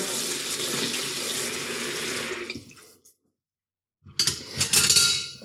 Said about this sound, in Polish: Miskę rzucam do, do, do zlewu wlewam wodę.